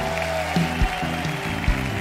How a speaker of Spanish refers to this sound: Hoy proclamo alabanzas y empiezan a aplaudir. Porque los demonios odian.